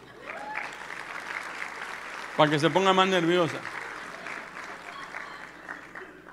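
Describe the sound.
An audience applauds with a dense, steady patter of many hands clapping throughout, while a voice speaks briefly over the applause partway through.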